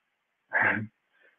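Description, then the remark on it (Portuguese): A single loud sneeze lasting under half a second, followed by a brief faint rustle or breath, with silence otherwise. “Saúde.”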